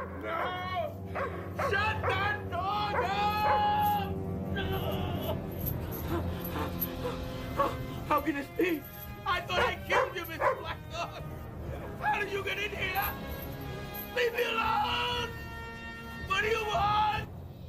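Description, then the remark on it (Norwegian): The dog of neighbour Sam Carr, which David Berkowitz called the Son of Sam, barks repeatedly and loudly, sharp yips mixed with whiny howls, while muffled voices murmur underneath throughout. “Denne naboen hadde en hund som eh, Berkowitz refererte til som Sams sønn, altså Son of Sam.”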